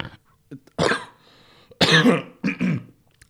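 Three harsh, phlegmy coughs with some throat clearing, the first longer and rasping, the last two coming close together. Loud, with no talking in between.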